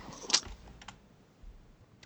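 A few sparse, quiet keystrokes on a computer keyboard, irregularly spaced, with one sharper tap standing out early and faint clicks trailing off against a low background hum.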